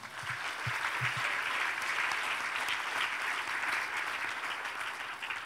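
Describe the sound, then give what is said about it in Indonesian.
A crowd claps steadily for several seconds, a dense, sustained wash of applause from a large group. “Mana tepuk tangannya?”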